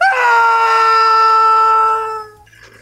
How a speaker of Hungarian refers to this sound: Hát amikor ilyet hallok, én is így tudnék üvölteni, mint a digitális kollega.